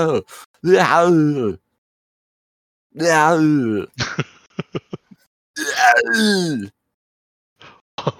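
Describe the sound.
A voice imitates the battle scream of Inferno, a Predacon flyer robot, screaming as he fires his gun, in three loud, drawn-out strained cries with wavering pitch, separated by pauses, with a few sharp clicks between the second and third.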